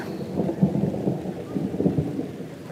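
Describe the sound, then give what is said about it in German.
Deep, rolling thunder rumbles continuously over steady rain from a short summer rain shower during a hike, with the low roar swelling a couple of times. No voices, just the storm. “Das ist auch immer gewittert, wenn wir wandern gehen. Nur ein kurzer Sommerregen.”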